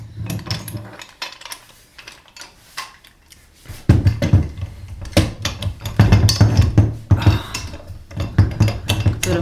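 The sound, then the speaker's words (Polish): Metallic clanking and rattling as an old hand-cranked meat grinder is handled and clamped down to grind cooked meat, sparse at first, then a louder, busier run of knocks and scrapes. “Dostanę tutaj ten przedpotopowy sprzęt.”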